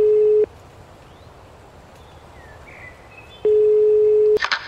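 A telephone call to the emergency line: a steady, mid-pitched beep cuts off, then after about three seconds of quiet hiss a second long beep sounds, loud and even, with no one speaking.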